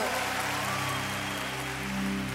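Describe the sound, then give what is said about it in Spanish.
A steady wash of crowd applause raised in worship to the crowned King, dense and continuous, with sustained low musical tones humming underneath throughout. “Levántele un aplauso al Rey que es coronado.”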